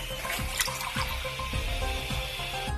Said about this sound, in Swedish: So if I like to... so if I like to fill a glass of water using a faucet of this kind, check this out.